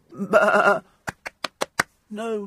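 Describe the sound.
A person gives a loud, quavering imitation of a sheep's bleat, followed by five quick, evenly spaced sharp bursts and then another brief voiced bleat-like sound.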